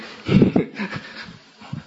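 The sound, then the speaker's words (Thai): A dog barks twice in quick succession, moderately loud, followed by quieter rustling and one faint, softer bark near the end. “เมื่อกี้พยายามจะรับรู้ลมหายใจตลอดเวลาแล้วนะหมาเห่าก็ไปหาหมาแล้วนะใช่ไหม”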